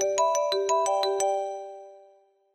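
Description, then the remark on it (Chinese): A telephone rings with a quick run of about seven bright, bell-like electronic notes, then the tones hang and fade away over a second or so. No one speaks. “这时，电话响了起来。”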